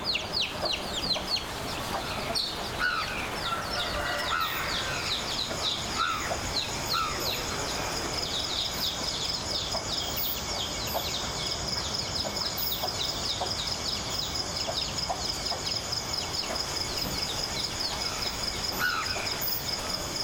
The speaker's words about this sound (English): Those are sounds of insects, small bird, and a stream in the back.